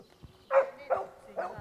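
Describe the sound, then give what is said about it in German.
A dog on a leash barks three times in quick succession, moderately loud, with short pauses between each bark against a quiet background. “Jetzt sollen wenigstens an der Leine haben.”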